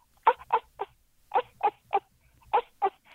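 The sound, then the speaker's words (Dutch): A voice imitates rhesus macaque calls: short, harsh, nasal cries delivered in three quick bursts of three, fairly loud, with brief pauses between groups. “Ik heb ze in Manila gehoord, zaten ze in de boom en dan hoor je...”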